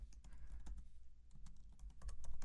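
Rapid, irregular keystrokes clatter on a computer keyboard, fairly loud, with a low background rumble and no voices.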